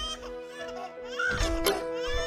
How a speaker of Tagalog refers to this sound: Nanay ka! Di mo kaya patahanin anak mo?